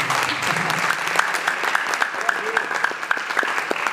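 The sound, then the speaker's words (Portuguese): A crowd claps steadily in praise of the Lord, a dense patter of many hands with sharp individual claps standing out, sustained throughout without any talking. “As palmas louvam o Senhor.”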